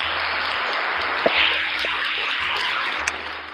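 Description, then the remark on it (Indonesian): A steady wash of applause from a crowd, dense and continuous clapping that holds at an even level for the whole few seconds, with a couple of sharper claps standing out. “Tepuk tangan dulu dong.”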